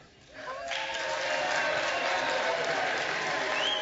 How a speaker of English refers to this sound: Oh, we're we're, we're applauding Hakeem Jeffries. Wait, what's happening? I don't know. They're cheering for uh, Honorable Hakeem Kevin Jeffries.